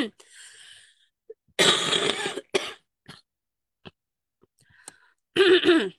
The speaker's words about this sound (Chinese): 最近咳嗽还是没有好。